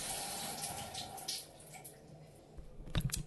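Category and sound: household object, cold shower water running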